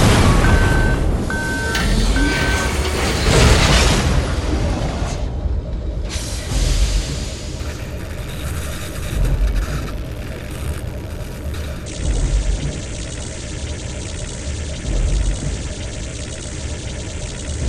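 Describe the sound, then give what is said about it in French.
A launch sound effect: a few short electronic beeps, then a loud, sustained roaring rumble like powerful engines firing, shifting in texture as it continues for several seconds with no talking. “Mais on fera un autre épisode sur le sujet quand ça reviendra, on dira un bruit de lancement.”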